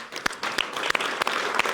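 Audience applause for the show's sound technician as the production crew is thanked, a steady wash of many hands clapping with a few sharper, louder claps standing out at irregular moments; no talking over it.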